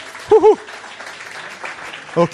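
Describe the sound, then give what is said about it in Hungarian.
A crowd applauds the students who start school tomorrow, with a steady, dense crackle of clapping, moderately loud. Brief voiced calls or cheers break through near the start and again at the end. “Nézzük, emeljétek föl, a többiek tapsolják meg őket.”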